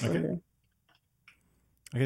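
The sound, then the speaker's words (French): A few soft clicks and light handling noises from a braille display, whose cells rise to form dots read with the fingers, sit in a short pause between bursts of speech, fairly quiet. “En fait, ça ressemble à ça, un afficheur braille.”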